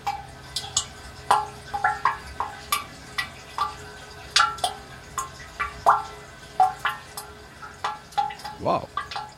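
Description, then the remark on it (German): Water drips steadily and irregularly inside a water catchment chamber, each drop landing with a clear, ringing plink that echoes hollowly, some sharp, others softer, with a gurgling plop near the end. “und da konnte man hören, wie die Wasserfassung, wie es klingt in der Wasserfassung und konnte das auch noch ein bisschen verstellen.”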